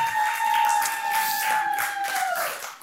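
A crowd applauds steadily for about three seconds, a dense wash of claps, while a thin sustained whistle-like tone runs over it and bends downward just as the clapping fades.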